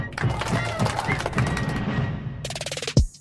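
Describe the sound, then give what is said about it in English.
Fireworks crackle and pop in a dense, rapid barrage of sharp bursts, with a louder boom near the end and faint background voices mixed in. “Historians say fireworks may have been used to cheer up the troops.”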